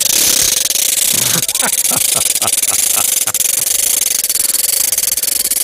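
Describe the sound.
A large ratchet noisemaker (carraca), one of the largest on the market, is spun loudly and continuously, producing a dense, rapid clacking rattle for several seconds, with brief voices cutting in over it midway.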